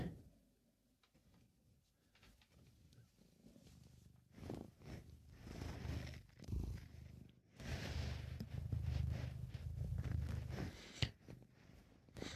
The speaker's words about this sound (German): Und jetzt schnurrt er auch.